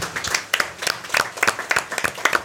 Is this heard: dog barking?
no